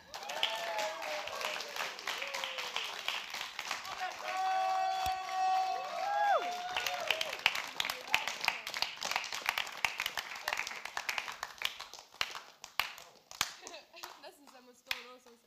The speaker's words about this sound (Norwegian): Men nå kan dere gi en rungende applaus for